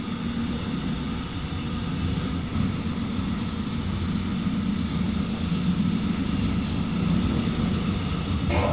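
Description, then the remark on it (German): A train rolls along with a steady, heavy rumble and rattling wheels as it slows arriving at Chemnitz Hauptbahnhof, where it terminates, while brief high hisses and squeals of the brakes flare up toward the end. No one speaks. “Sehr geehrte Fahrgäste, wir erreichen jetzt Chemnitz Hauptbahnhof. Dieser Zug endet dort.”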